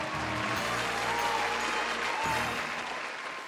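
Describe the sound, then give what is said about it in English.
A large crowd applauds and cheers steadily, a dense wash of clapping with whoops and shouts throughout, loud and sustained before easing slightly at the end; crowd noise cued to welcome the season three Dopies award show. “Cue the crowd noise”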